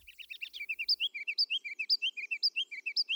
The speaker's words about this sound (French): En tout cas, je suis pas la seule à trouver qui emmène large, même s'il doit à peine peser 10 grammes. D'autres avant moi lui ont donné le nom de roitelet à couronne rubis.